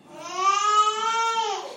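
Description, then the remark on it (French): A single sustained wail from a German newborn baby, loud, holding a steady pitch before its melody slides downward at the end. No other sounds or voices. “Les bébés allemands pleurent avec une mélodie plutôt descendante,”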